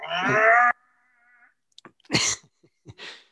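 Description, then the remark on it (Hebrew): A voice mimics a game console's disc drive spinning with a disc inside, as it does when switched on and every few minutes to check the disc, with a loud, droning hum that fades into a thin whine, followed by a few short, breathy bursts, probably laughter. “ואז פעם בכמה דקות הוא כזה בודק שהסיבי עדיין בסדר, אז הוא עושה כזה...”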